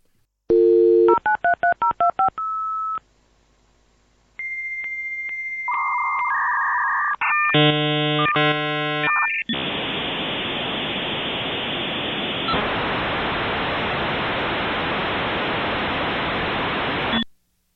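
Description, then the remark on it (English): A dial-up modem connects a home computer to the internet over a phone line: quick touch-tone dialing beeps, then warbling handshake tones, giving way to a long, loud hiss of static that cuts off abruptly. “that sound that you just heard is the sound of the internet connecting to your home computer via the phone line”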